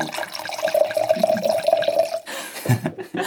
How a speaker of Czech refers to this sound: A já bych vám možná, jestli souhlasíte, nalil skleničku dobrého eh, rizlinku.